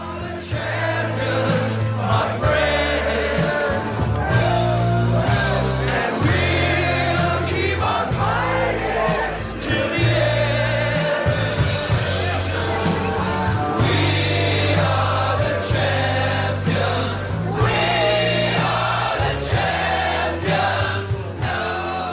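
A large crowd of people who have just lost sings together loudly and steadily while watching a screen, many voices blending into one chant over a deep, thumping low end, sustained for the whole stretch without pause.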